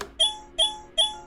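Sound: audio game cue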